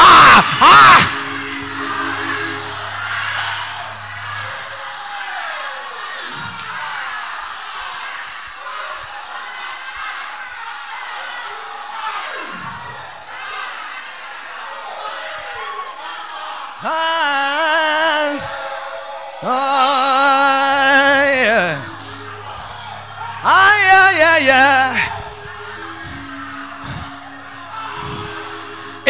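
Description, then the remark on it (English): A large church audience shouts and whoops continuously, with several loud surges of high, wavering yells and screams rising above the steady roar, some sustained cries near the end. “But, but, but, but, for some of us, the reason we are shouting is that as I'm speaking, something is jumping on the inside, something is moving”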